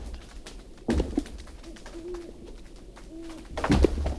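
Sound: owl hooting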